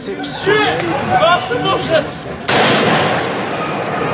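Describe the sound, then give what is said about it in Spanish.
A voice speaks briefly, then a sudden loud burst of sustained, crackling automatic gunfire erupts from the street and continues without pause, drowning out everything else. These are the first shots of Islamist terrorists attacking a satirical magazine's Paris headquarters with automatic weapons in 2015. “asistió al momento en el que desde la calle se escucharon los primeros disparos.”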